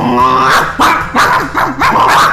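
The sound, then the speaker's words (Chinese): A police dog in the United States, chasing a man who bit its ear, barks and growls loudly: a long snarling bark followed by a quick run of four or five sharp, harsh barks in an uneven rhythm, with no one talking. “美国最近真出了奇葩事件，一个男子在被警犬追击时，狠狠咬伤了警犬的耳朵。”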